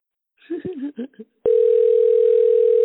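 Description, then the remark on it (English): A brief bit of talk, then a phone line tone sounds on a call to Pakistan: one steady, loud, mid-pitched hum that holds unbroken to the end while the call goes unanswered. “Yeah, not answering.”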